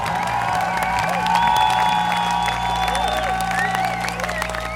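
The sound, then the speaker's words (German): A large crowd of a band's fans at a rock concert cheers and applauds continuously as the Berlin trio opening act leaves, after the rain has stopped. A loud, dense roar of clapping and scattered whoops with sustained tones running underneath throughout. “…fans feiern … und wieder denke ich, das sind einfach die besten Fans der Welt.”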